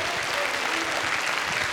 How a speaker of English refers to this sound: If you believe it, give the Lord a clap offering today. Hallelujah.